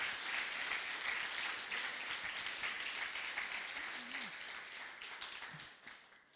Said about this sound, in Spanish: Dale ese aplauso al Rey.